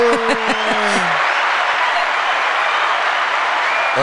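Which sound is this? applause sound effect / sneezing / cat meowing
applause sound effect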